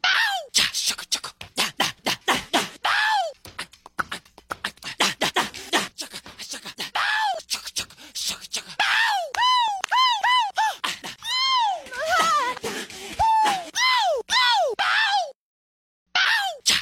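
A pop singer's rapid string of little vocal cries, yelps and breathy whispers, extracted from one of his songs and compiled in a There I Ruined It video, punchy, tumbling over one another with a short gap of silence near the end.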